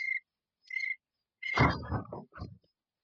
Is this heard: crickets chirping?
yes